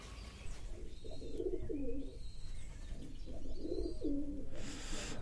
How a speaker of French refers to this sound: Alors on est avec les oiseaux.